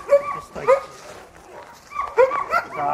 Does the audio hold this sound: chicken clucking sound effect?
no